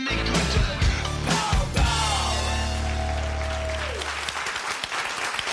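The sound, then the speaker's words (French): A staged audience claps and cheers on a show welcoming Quebec radio personality Jeff Fignon, in a dense, steady burst with a few yells mixed in. A sustained tone rides over it, and the applause thins out after about four seconds. “Ils ne veulent pas vraiment t'applaudir.”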